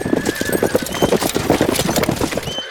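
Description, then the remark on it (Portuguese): Several horses ridden by men in armour clip-clop at a steady, busy rhythm in Marateca, hooves clattering over each other, with a faint whinny threading through the hoofbeats. “Estou ali uns bacanos a cavalo.”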